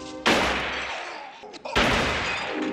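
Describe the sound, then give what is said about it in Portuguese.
Two loud gunshots from a film scene in which Michael Corleone shoots the police chief ring out about a second and a half apart, each a sharp blast trailing into a long, reverberant decay. “Não estava a resultar e a opinião geral da equipa só mudou quando ele filma uma das cenas-chave da fita, quando Michael Corleone deixa de ser o filho honrado do padrinho da máfia e mata a tiro o chefe da polícia.”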